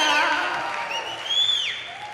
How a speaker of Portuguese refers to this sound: Eu vi que foram palmas espontâneas.